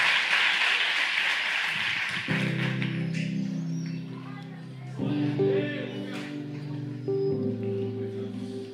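An audience stands and applauds the Lord in a dense, steady wash of clapping, soon joined by sustained keyboard chords that swell and shift while the clapping continues more softly beneath.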